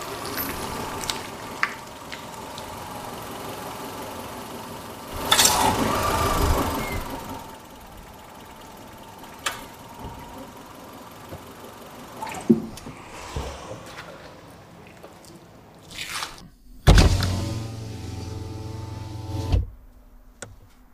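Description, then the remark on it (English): A car rolls slowly into a parking spot at a drive-in theater with its engine running steadily, a few soft bumps and creaks along the way, then a louder, rumbling engine burst near the end before it quiets. “Let's uh, pull in, get our spot, and then uh, we'll be back.”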